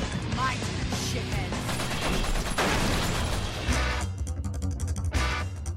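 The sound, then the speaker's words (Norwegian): Rapid video game gunfire as the heroine of an action game fires off many shots while running up walls, swinging from poles and sliding along the ground; it crackles loudly in dense, overlapping bursts, mixed with impacts and clanking effects that keep the whole stretch busy without a pause. “I løpet av spillet blir du introdusert til alle hennes akrobatiske ferdigheter, og snart løper du oppover vegger, svinger deg fra stolper, hopper og sklir bortover bakken, alt mens du fyrer løs en mengde skudd.”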